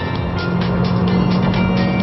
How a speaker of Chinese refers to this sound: 因为这个一是 CVT 的反应，我觉得不是那么的机敏，不是那么的敏感。第二就是它的发动机的高转速下的声音。相信你们也听到了